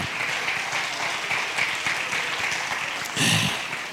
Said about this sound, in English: Oh, somebody ought to clap your hands and shout to the Lord. I feel the presence of God in this house.